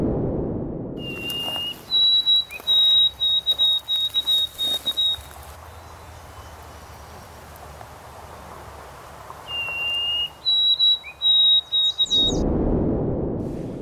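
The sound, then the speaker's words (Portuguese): Two clear, high sparrow songs recorded in the 1960s, each opening with a short whistled note followed by a string of rapid repeated chips in an orderly rhythm, heard alone against faint background hiss. “Então, esse é o primeiro sonzinho do pardal, tá?”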